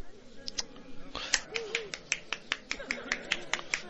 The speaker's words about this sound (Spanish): En esta ocasión em, rompo yo el hielo y empiezo a aplaudir